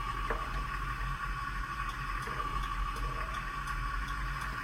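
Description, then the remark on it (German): A bus turn signal ticks faintly and steadily, its soft clicks repeating over a constant low engine drone inside the vehicle, with no one talking. “Hört euch den Blinker an.”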